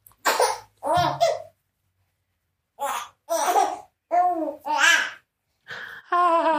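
A baby babbles in a string of short, bright bursts of coos and vowel sounds, with a brief pause midway and a longer sing-song sound at the end.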